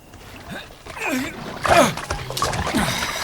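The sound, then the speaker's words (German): Water sloshes and splashes in a few uneven bursts as a man climbs out of a pool holding a waterproof plastic box, with a voice speaking over the watery noise. “Mit ihr kletterte er aus dem Pool.”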